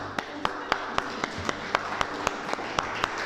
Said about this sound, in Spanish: Ven, tenista. Ven. Denle un aplauso acá.